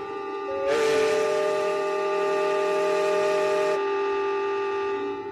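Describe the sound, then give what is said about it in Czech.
The horn of a steamboat arriving from Lávr sounds one long, steady, loud blast with a deep fundamental and bright, reedy harmonics, holding for about three seconds before cutting off, leaving a low tonal hum beneath. “A přijíždí párník z Lávru.”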